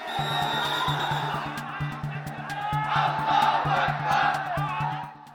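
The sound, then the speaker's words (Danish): A large crowd of about 40,000 angry Muslims in Bangladesh chants and shouts in unison, their anger aimed at French president Emmanuel Macron, a dense roar of many voices rising and falling with a steady rhythmic pulse throughout, loud and sustained. “Det her, det er lyden af 40.000 vrede muslimer i Bangladesh.”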